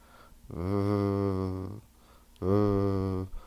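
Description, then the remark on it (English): A voice imitates a phone vibrating in a pocket with two steady, low buzzing hums, the first longer than the second, separated by a short pause, fairly loud. “I was bricking it, and then I just realized it was my phone vibrating in my pocket.”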